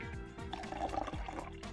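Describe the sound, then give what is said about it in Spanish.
A cocktail is finely strained into a chilled glass, a steady trickle and splash whose pitch rises as the glass fills, with no voices. “final serviremos sobre una copa fría colando finamente.”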